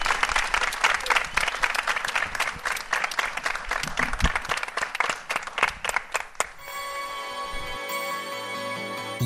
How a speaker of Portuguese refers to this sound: Vamos às palmas.